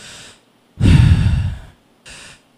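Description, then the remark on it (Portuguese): A voice makes three breathy, airy exhalations: a soft short one, a louder and longer rushing breath, then another brief soft puff, imitating the pronunciation of the divine name YHWH as the sound of breathing. “Esse nome pronunciável, que alguns inclusive dizem que a, a tentativa de pronúncia dele é como o, o, o som de uma respiração.”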